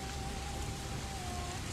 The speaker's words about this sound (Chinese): 天空突然变得灰蒙蒙的，开始下雨，雨水一点一点地打在我们的身上，让我无能为力。